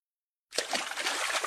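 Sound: stream water trickling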